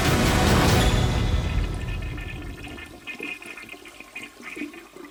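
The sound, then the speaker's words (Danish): A toilet flushes with a loud whoosh of rushing water that fades after a couple of seconds into a softer gurgle and trickle as the tank refills. “I forgot to wash my hands.”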